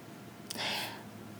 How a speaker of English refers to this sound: And my dog just snored in the background, so if you heard that, I apologize.